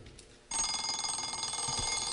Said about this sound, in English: a, sound that is desperately, desperately familiar to most of us, and of course, it's the sound of the alarm clock. And what that truly ghastly, awful sound does is stop the single most important behavioral experience that we